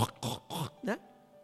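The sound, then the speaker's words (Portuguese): A voice makes three quick, raspy throat-clearing grunts imitating a pig's snort, followed by a short nasal squeal-like rise, fairly loud, then quiet. “Deu uma coçada na garganta lá, ficou igual o porco.”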